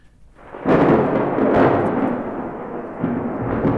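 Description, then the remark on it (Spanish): A steady, dense wash of rain sets in after a quiet start, loud with surging gusts, and a low rumble like thunder beneath it; no voices. “¿Cuál es la predicción del clima? Está lloviendo.”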